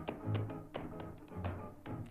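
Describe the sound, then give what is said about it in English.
Tap shoes clatter out a quick, lively rhythm on a hard vinyl floor in a shoe store as a woman still sitting in her chair beats her feet, crisp, with soft humming faintly underneath the steady run of taps. “Still sitting in her chair, she let her feet beat a quick rhythm on the vinyl floor and hummed”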